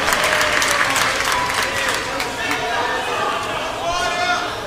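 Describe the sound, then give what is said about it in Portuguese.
A church audience claps to Jesus in a dense, sustained burst of applause as they take their seats, with voices calling out and murmuring underneath as people shuffle to sit down. “Toma seu assento aplaudindo a Jesus, porque Ele é bom, porque Ele é maravilhoso.”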